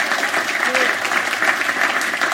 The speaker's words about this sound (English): Who remembers Linda? Yeah. yeah. I still occasionally nick. Let's have a round of applause for Linda Smith. yeah, yeah.